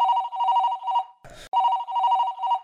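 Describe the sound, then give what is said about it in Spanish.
A telephone rings in two loud trilling bursts with a brief clattering break between them, with no voices. “Ah, ah, el teléfono.”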